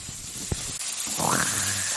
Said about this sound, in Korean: 어머, 어머, 잡채를 파네. 그러면은, 그래, 이거 잡채 지금 볶고 있잖아요. 잡채 볶는 소리. 그러면요, 거리 한복판에서 잡채를 파니깐요.